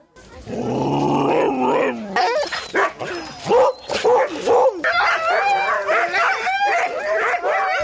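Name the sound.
sled dogs barking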